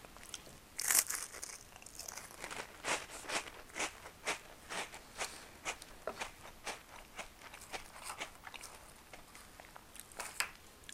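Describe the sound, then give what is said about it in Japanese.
Crisp crunching and chewing of Ritz crackers, a steady rhythm of short bright bites repeating roughly twice a second, fairly soft, with no talking over it. “これ変わらない味だよなパッケージはいろいろ変わってるけど中身はずっと同じだと思うすごい昔からあるよねこれ。”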